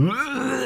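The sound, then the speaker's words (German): A voice imitates a woman retching over a toilet at night after drinking, a short, strained, guttural heave, fairly loud, fading out at the end. “Und es war wirklich, ich habe immer auf den Moment gewartet, so wo man so richtig hört, dass sie so über dem Klo hängt und so”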